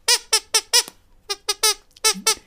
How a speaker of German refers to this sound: So, bei der Gelegenheit da ist sie wieder, die Ekelquietsche.